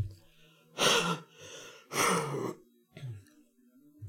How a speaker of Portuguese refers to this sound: Peraí que eu vou dar uma tossidinha, gente. Vai ser aqui no cantinho para não atrapalhar muito vocês.